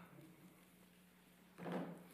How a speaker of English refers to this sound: And I would love to hear those Bible pages turning to Isaiah 50, 10. There it is. What a sweet, sweet sound.